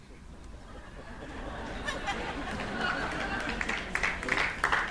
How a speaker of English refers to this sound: Some of y'all clapping for the wrong reason.